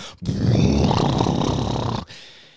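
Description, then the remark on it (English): A voice imitates the deep rumbling of a storm heard outside: a single loud, rough, low growling sound held for nearly two seconds, then cut off abruptly. “Whoo, And then you had this very deep rumbling, like,”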